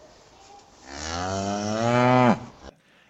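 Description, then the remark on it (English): A single long cow moo, rising from a low start into a loud, drawn-out call that drops off abruptly near the end, heard alone with no talking. “host of the Gutting the Sacred Cow podcast, hence all of the cow motifs.”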